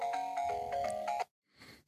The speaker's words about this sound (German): Hat man den Klingelton gerade gehört, so ein bisschen? Ja, ja, was auch immer das war. War das jetzt der Eisklington oder was? Der Eismann? Klang das so?